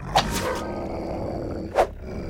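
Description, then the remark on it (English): Hounds bark twice, two sharp loud yelps about a second and a half apart, the first trailing into a short rough growl, over a steady low rumble, as the approaching hounds are attacked with an axe. “Marty follows after her, axing the hounds as they approach him.”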